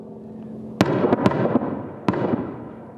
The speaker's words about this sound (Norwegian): Et helikopter fyrer av en rakett.